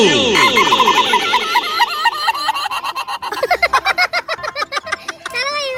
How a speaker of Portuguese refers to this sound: Olha, o frio tá tão grande no sul que o galo, em vez de cantar, ele chora.